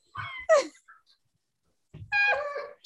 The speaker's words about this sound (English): Hey, hey, her dog. Be quiet. One of her dogs will literally run around the house and just like bark right now and cry.